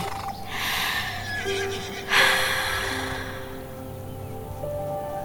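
A horse that is being approached and stroked whinnies loudly, a long, quavering neigh with a sharp rise near the middle that trails off into breathy snorts. No one speaks.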